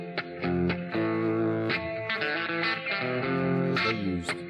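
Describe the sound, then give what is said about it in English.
An electric guitar plays alone through an amplifier, its chords and notes ringing with a warm, slightly driven tone and some effect shimmer, sustained and fairly loud with no voices. “I reckon this is a like a Fender vibrato or uh, let's hear these two together.”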